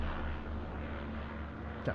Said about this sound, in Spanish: se fue el helicóptero.